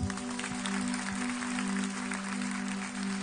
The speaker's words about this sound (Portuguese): Pode aplaudir a Jesus.